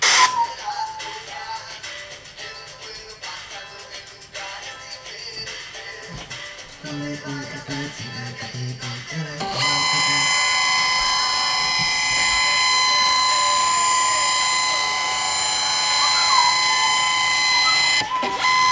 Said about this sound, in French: c'est le bruit quand je, scanne, quand mes photos, c'est le, bruit que ça fait.